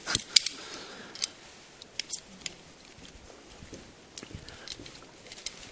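An umbrella being opened: a series of sharp, scattered clicks and snaps over a soft rustle of fabric, with a couple of louder clacks early on and no talking.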